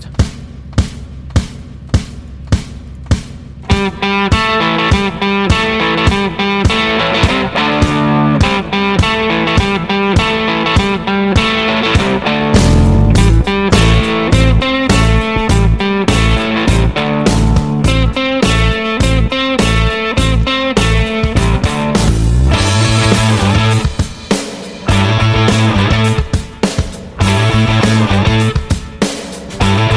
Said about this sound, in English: Um, but this song is really cool.